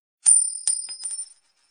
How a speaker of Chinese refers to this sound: 女孩惊慌失措间，硬币掉在了地上。